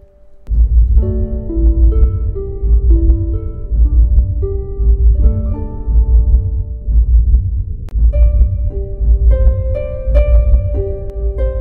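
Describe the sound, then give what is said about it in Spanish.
A slow, steady, heartbeat-like thumping from a large house flanked by a grape arbor pulses evenly throughout, deep and loud, with sustained droning tones layered above it. “Y en invierno y verano, la casa grande, flanqueada por el emparrado, emitía un bum, bum, bum, acompasado, casi siniestro, que era como el latido de un enorme corazón.”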